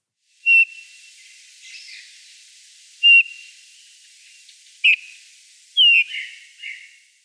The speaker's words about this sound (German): Eine ganz tolle Art, nicht nur akustisch, sondern auch visuell, eine Finkenart und die ist im deutschsprachigen Raum unter zwei Namen bekannt. Im Englischen wird sie Bullfinch genannt.